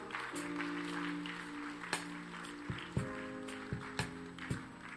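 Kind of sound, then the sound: crowd, audience clapping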